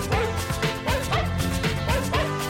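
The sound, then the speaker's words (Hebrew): Sampled dog barks punch rhythmically through a loud electronic track by a German musician, repeating roughly every half second over a steady, dense beat with no voices. “כמה שיכור אתה צריך להיות בשביל להיכנס לאולפן ולסמפל כלב, כאילו.”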